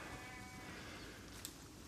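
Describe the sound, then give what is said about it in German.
A sheep bleats outdoors on an autumn pasture on the Swabian Alb, a wavering, drawn-out call set against a steady, rumbling open-air background, fairly faint, with no talking. “Und sobald ich dann mit den Schafen von der”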